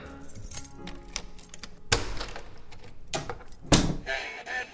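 A bag with ibuprofen for a neighbour is hung on a door handle: rustling and rattling with two sharper knocks against the door, the handle jangling lightly in between. Nobody speaks.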